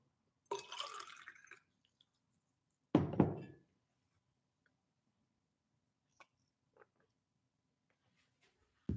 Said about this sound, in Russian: Воды попью.